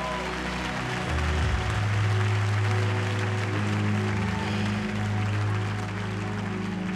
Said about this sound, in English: Would you put a big hand clap on that and agree with me on that?